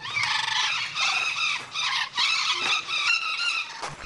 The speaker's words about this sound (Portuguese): Ela é considerada a mais brasileira das aves e, quando estão em bando, fazem muito barulho.